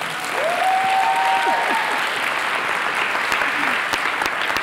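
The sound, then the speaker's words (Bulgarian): Dense, steady applause from a church audience at Awakening (Probuzhdane) church fills the whole clip at an even loudness, with a brief rising whistle or whoop cutting through early on. No one speaks. “Аз бих ръкопляскал, ако бях от църква побуждан.”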